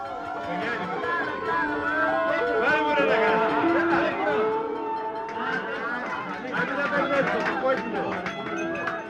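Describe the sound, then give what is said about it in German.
A lively crowd of guests at an Easter Sunday feast cheers and chatters as two men carry a roasted sheep past, many overlapping voices rising and falling in a steady, dense hubbub, with no single speaker standing out. “Das gebratene Schaf wird von zwei Männern vorbeigetragen. Die Gäste jubeln.”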